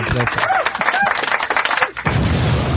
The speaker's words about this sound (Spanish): Una bomba